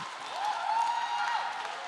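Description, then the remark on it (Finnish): An audience applauds in a steady, dense wash of clapping that swells slightly mid-way, with a thin whistle-like tone gliding through it. No one speaks. “Ja mä haluan oikeasti, saa antaa aplodit.”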